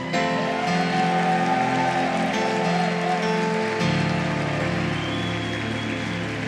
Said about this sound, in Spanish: Dele un fuerte aplauso al Señor.